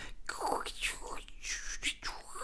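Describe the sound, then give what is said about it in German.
A voice imitates radio waves as static, with a breathy, hissing noise that rises and falls in short whooshing bursts, fairly quiet, with no words spoken. “Also Radiowellen sind doch immer so”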